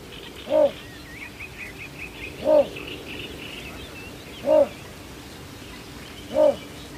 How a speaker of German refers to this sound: Also Lautäußerungen, man kann auf jeden Fall äh, das Männchen ab Anfang Mai, kann man den Balzruf hören. Ähm, das ist ein sehr gedämpftes und monotones, froschartiges ähm, ein frischer, dicker Lord.